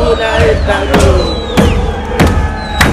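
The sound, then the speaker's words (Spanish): A big crowd sings and cheers together in the street on Avenida La Plata in Buenos Aires, a dense wall of voices punctuated by loud, regular bangs roughly every half second, like drumbeats keeping time. “¿Cómo dice la gente del otro lado? Me imagino deben estar todos cantando.”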